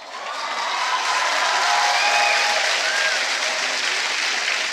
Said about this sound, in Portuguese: As meninas aplaudem.